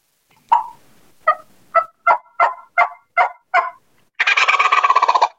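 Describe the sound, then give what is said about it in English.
A series of about eight evenly spaced yelping notes, then a loud eastern wild turkey gobble: a rapid, rattling burst lasting about a second. No one speaks. “He's going to gobble right in front of you.”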